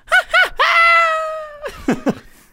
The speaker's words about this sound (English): so, I did like uh, the screaming at the yeah, end there. That was yeah. pretty funny.